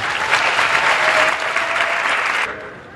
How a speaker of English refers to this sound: Please give these four a big round of applause and welcome.